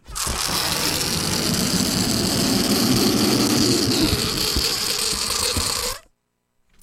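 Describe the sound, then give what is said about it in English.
A balloon deflating: a loud, steady rush of air with a buzzing, fluttering rattle that lasts about six seconds, then cuts off abruptly into silence. “That's a balloon deflating.”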